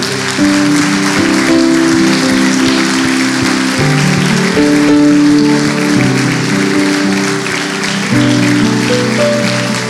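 A large audience claps loudly and steadily for the full stretch, a dense wash of applause layered over sustained keyboard or organ chords playing underneath.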